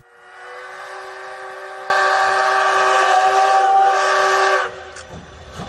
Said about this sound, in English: The sound of the horn pierces the air as the locomotives crawl forward in this East Coast Railway. Look close. The blue cars are pulled by not one but two steam locomotives. The one up front is the CT273, hailed as the queen of the steam locomotives.